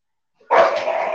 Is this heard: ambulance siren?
no